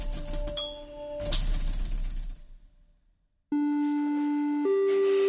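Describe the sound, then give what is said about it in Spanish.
Mechanical whirring and rattling with a faint tone gives way to silence, then a loud, steady electronic fire station alert tone sounds, stepping up to a higher pitch and holding; the tone signals the urgency of the alert. “Un código de colores y un sonido indican la urgencia de la alerta en los parques de bomberos.”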